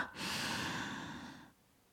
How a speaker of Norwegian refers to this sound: Jeg personlig, jeg holder pusten, og det fungerer bra. Så jeg puster godt inn. Jeg puster dypt inn gjennom nesa.